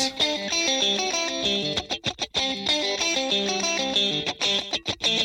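A loud, full-band music track with distorted, effects-laden guitar or synth lines over a steady driving rhythm, with brief punchy stops and hits midway, and no vocals.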